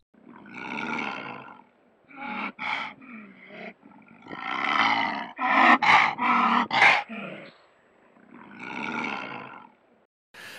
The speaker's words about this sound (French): Les vocalisations de menace de la panthère sont plutôt des grognements, des grondements, des sifflements ou des crachements.